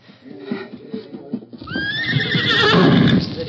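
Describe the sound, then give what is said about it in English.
A horse named Victor lets out a loud, shrill whinny that rises sharply and trembles on for a couple of seconds, after a stretch of lower snorting and shuffling sounds. “You get horse and go first.”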